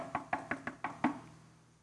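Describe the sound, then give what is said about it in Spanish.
Six quick, evenly spaced knocks on a door, with the final rap landing hardest and ringing out briefly. No voices accompany them. “Día siguiente, no pasaron ni 24 horas cuando oigo en mi puerta.”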